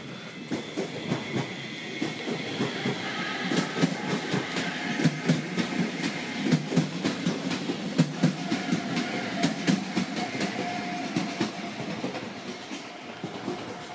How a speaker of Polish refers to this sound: Teraz muszę poczekać, bo jedzie pociąg.